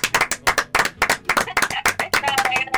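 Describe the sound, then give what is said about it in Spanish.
Audience applause as a farewell to a guest artist: a small crowd clapping steadily and fairly loudly for nearly three seconds, with quick, slightly uneven claps and a faint voice or cheer rising near the end. “Bueno, gracias y, Te, te despedimos con este aplauso ¿eh? maravilloso para vos.”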